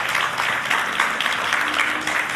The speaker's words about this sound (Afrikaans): Kom ons gee hom 'n lekker hande klap. Yes.